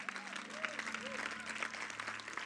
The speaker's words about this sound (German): Hey, das war ein erster Schritt. Gut gemacht. Lass uns doch mal den Leuten, die das zum ersten Mal gemacht haben, einen kleinen Applaus geben.